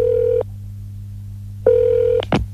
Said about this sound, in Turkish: Bir gün sizin de telefonunuz çalacak.